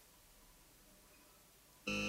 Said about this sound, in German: Ein leises Summen bedeutete ihr, dass sich Sesam geöffnet hatte.